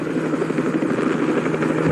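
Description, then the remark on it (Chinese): A helicopter's steady, loud rotor drone with a continuous low hum and a rapid chopping texture running through the whole short stretch, with no voices. It is from a romantic scene in the Hong Kong film 与龙共舞 (Dances with the Dragon), in which Andy Lau and Man Cheung ride in Ng Man-tat's helicopter. “我要报的吼是另外一出吼华仔甲达叔的这个经典作品啊，《与龙共舞》当中呢，刘德华甲这个张敏坐上达叔的直升机的浪漫片段哦。”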